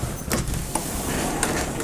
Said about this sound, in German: Ja, so ein weiter hier durch die schweren Türen. Aber die machen lustige Geräusche.